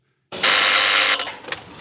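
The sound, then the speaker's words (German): An old telephone bell rings loudly in a 1970s television documentary, one harsh metallic burst lasting about a second before it falters and trails off, with no voices. The telephone is used to pass on current match scores. “Auch der Moment, wenn aktuelle Spielstände so per Telefon noch durchgegeben werden.”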